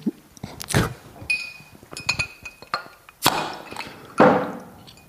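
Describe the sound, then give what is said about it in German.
Glass clinks and knocks, followed by a few sharp bursts with a brief fizzy hiss as a beer bottle is opened, with no talking. “Während du den Topf aufmachst, mache ich nochmal ein Bier auf.”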